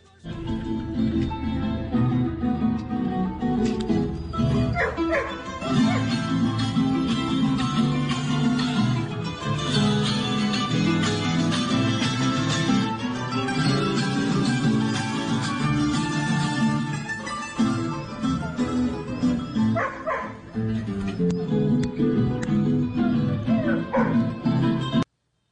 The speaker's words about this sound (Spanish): escuche, escuche porque esta es la filarmónica haciéndole el concierto a los perritos y mientras tanto los perritos ladrando.